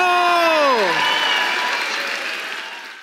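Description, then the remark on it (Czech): Loud, dense applause from a large audience at a Czech music awards ceremony as a band is named group of the year, opening with a high falling whoop of a cheer, then steady clapping that fades slightly toward the end. “takže nyní přichází ovace pro …”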